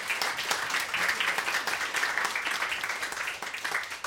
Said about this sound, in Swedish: Ja, Trevligt att ha er här. En applåd för våra gäster.